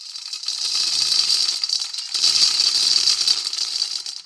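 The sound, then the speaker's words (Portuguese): 270 coffee beans pour into a bowl in two steady streams, a dense, bright rattling patter that pauses briefly in the middle, fairly loud with no voices; the beans represent Rio de Janeiro's 1870s population of 270,000. “Por isso, você ouviu aí 270 grãos de café caindo na vasilha.”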